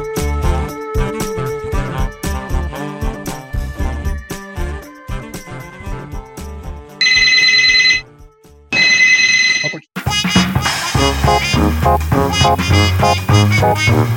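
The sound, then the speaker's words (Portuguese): A landline telephone rings twice in short, loud bursts of trilling bell, cutting into busy music that plays before and resumes right after. “Nunca o telefone fixo tava, chamando, fixo tava chamando, é brincadeira.”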